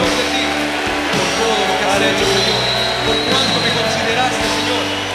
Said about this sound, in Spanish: Cuán bueno, cuán grande nuestro Dios. y levante un aplauso fuerte al Señor.